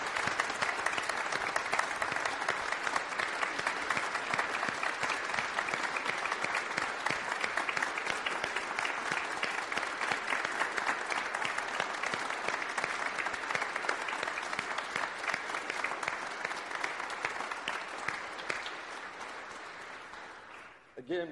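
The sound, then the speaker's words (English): An audience applauds in a long, steady wave of dense clapping that holds at an even loudness for about twenty seconds, then thins out and tapers off at the end. “Let's show our love and appreciation to these guys.”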